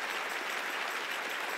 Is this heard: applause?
yes